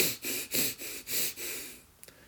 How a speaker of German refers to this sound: Wie funktioniert dieses Tumor Breathing? Wir nehmen 30 schnelle Atemzüge durch die Nase ein und durch die Nase aus. Das klingt dann ungefähr so.